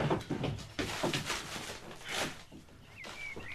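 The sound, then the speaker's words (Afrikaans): The bottom drawer of a cupboard is pulled open with a scraping wooden rattle lasting a couple of seconds, followed by quieter handling and a brief high squeak near the end. “Maak haar die kas se onderste laai oop Daar binne is 'n hemp wat in wit sneespapier toegedraai is.”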